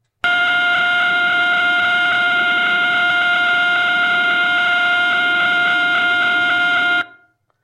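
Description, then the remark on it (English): The radio signal of pulsar B1937, the fastest known pulsar, rotating 716 times per second, rendered as sound: a loud, steady, high-pitched buzz with a harsh harmonic edge, holding unchanged for about seven seconds before cutting off abruptly. “Now the fastest known pulsar this thing called B1937 plus some other random numbers, rotates 716 times per second.”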